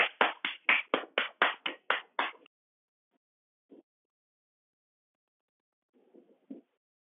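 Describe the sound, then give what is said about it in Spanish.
A burst of applause welcoming a guest on a show: about a dozen loud, evenly spaced claps in quick rhythm for a couple of seconds, then it stops, leaving only a few faint scattered taps afterward. “Con todos vosotros. Bacon Un aplauso.”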